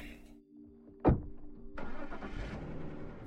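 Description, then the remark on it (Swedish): A car engine cranks and catches with a sharp burst, then settles into a steady running rumble as the car drives out of a driveway; no one speaks. “När bilarna kört ut från uppfarten smyger Janne in i föräldrarnas sovrum”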